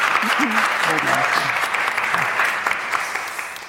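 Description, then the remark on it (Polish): Steady, dense audience applause fills the whole clip, a continuous crackle of many hands clapping, with a faint voice briefly audible underneath near the start. “Brawa.”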